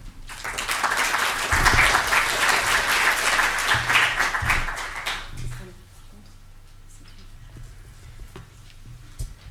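An audience applauds with dense, steady clapping for about five seconds, then the clapping thins out and fades into a quieter room with a few scattered claps.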